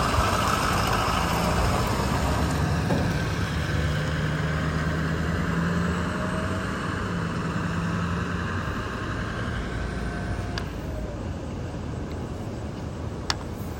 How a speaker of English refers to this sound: Right, I guess that truck was uh, 22, 22, 320 Smith. turning around.